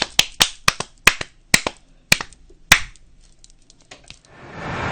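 Brief, sparse applause welcoming a guest: around a dozen sharp, crisp handclaps in an uneven rhythm, tapering off, with a soft hiss swelling at the end. No one speaks.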